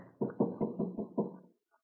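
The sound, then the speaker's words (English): Six quick, evenly paced knocks on a wooden door, moderately loud, followed by a brief silence. No voices are heard. “Here, here, let me smooth your hair down before I knock on the door.”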